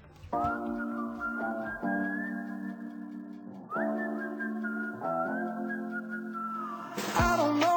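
A pop song carried by a loud, clear whistled melody of long sustained notes that shift in steps, with a brighter burst of sound near the end.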